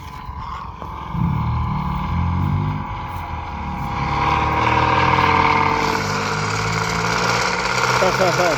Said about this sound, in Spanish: Pues creo que está llegando el tanque de combustible. Estoy escuchando su sonido de motor viejo.